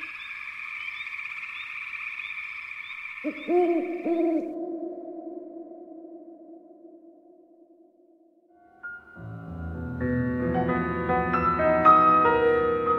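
An owl-like hoot rings out in long, sustained tones, first high and then lower and softer, before a swell of layered music takes over. No one speaks.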